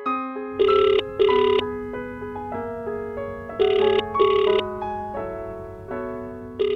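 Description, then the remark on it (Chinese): A phone rings on an outgoing call made at a station exit, with a bright electronic melody of stepped tones, the same short phrase repeating steadily and loudly with no voices. “我又往回走了几步，然后给他打了个电话。”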